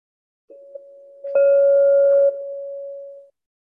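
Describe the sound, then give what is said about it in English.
A meditation bell rings alone at the start of a 60-minute sitting, a steady clear tone swelling as it is struck once, then holding and slowly fading out over a few seconds. No talking. “Hear three bells one in just a moment, one midway through, and the final bell uh, 60 minutes from now.”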